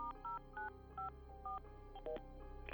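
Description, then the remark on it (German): A phone number being punched in on a touch-tone keypad as a mother calls the Montgomery County Sheriff's Office to report her daughter missing: about seven short dual-tone beeps in a quick, slightly uneven rhythm, heard alone over a faint low background hum. “Lishas Mutter rief schließlich das Büro des Sheriffs von Montgomery County an und meldete sie als vermisst.”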